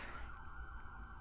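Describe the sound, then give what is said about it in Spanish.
An ambulance siren wails steadily in the background, held on one high note and fairly faint, over a low rumble of traffic. “perdón por la sirena atrás, se dice sirena, la ambulancia, bueno, la ambulancia”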